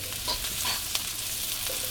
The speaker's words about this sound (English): So we add the garlic and the shallots. Mm-hmm. And do you hear that sizzle sound? That means that the wok is correctly preheated.